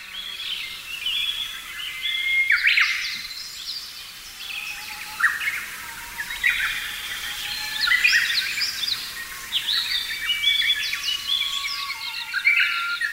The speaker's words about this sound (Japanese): そのためウグイスは大きな声で鳴き続け健康なオスであることをアピールします笹が豊富な森ではウグイスがとても賑やかに鳴いていることになります